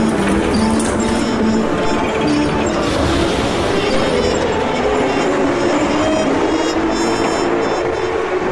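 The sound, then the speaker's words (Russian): A metro train rumbles steadily along the rails, loud and continuous, with droning motor tones that slowly shift in pitch as it moves. No one speaks. “Метро.”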